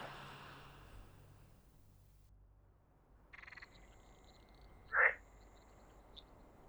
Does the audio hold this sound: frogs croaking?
yes